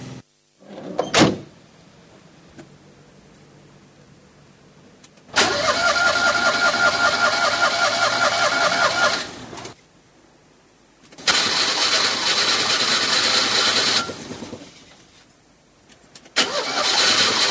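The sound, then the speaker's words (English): The starter of the Mamie Van Show's large podium bus, which has a starter problem, cranks in three long, loud bursts separated by short pauses, grinding rhythmically without the motor catching. A sharp clunk sounds near the start, and no one speaks. “Le, le car podium euh, du Mamie Van Show a euh, un petit souci de démarreur.”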